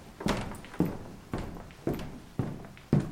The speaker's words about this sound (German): steigt die Treppe hinauf zur Orgelempore und setzt sich an den Spieltisch, ein zufriedenes Lächeln im Gesicht.